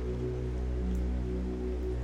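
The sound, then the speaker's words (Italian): Torrential rain pours down in the dark over a Chicago public housing area, in a dense, unbroken hiss that stays steady and fairly loud throughout, with a low droning hum running beneath it. “Non è una zona in cui una donna possa trattenersi al buio e la pioggia che scende torrenziale coprirebbe le sue grida se venisse attaccata.”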